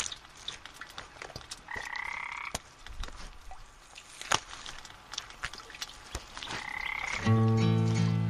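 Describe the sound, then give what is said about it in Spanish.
Frogs croak in short buzzing calls, a couple of mid-pitched trills spaced apart, then a louder, deeper croak at the end, over a faint crackly wet background with scattered clicks. “Caminan ranas por las aceras de esta lluvia gris.”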